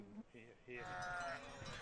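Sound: sheep bleating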